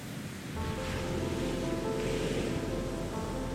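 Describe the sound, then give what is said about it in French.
Ocean waves break and roll onto the shore in a steady, full wash of surf, with swells rising twice as the water crashes and hisses. No one speaks. “Les vagues déferlent en rouleaux.”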